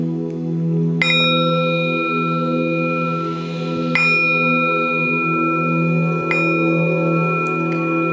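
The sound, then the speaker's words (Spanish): A bell is struck three times at uneven intervals, each strike ringing out with a bright, sustained metallic tone over a steady low hum; no one speaks. “Sueno la campana.”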